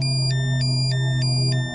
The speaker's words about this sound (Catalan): Dues del migdia. El mòbil sona per última vegada.